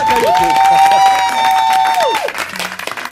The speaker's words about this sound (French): Vous applaudissez alors que je parle de commentaires.